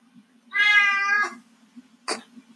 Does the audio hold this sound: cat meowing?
yes